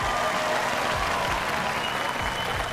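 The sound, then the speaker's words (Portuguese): An applause sound effect added by the editor: a burst of crowd applause, steady and dense clapping from many hands that stays loud and even for about three seconds, with no voices over it. “editor, bota uma salva de palmas aí, vai”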